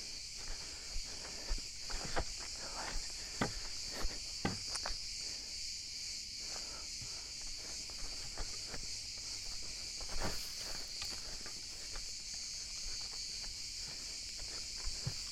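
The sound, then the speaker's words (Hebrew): A steady, high-pitched chorus of crickets chirping in the Yokneam forest fills the whole clip, with scattered soft crackles and footstep-like crunches breaking through now and then. No one speaks. “וכעת, שירת הצרצרים.”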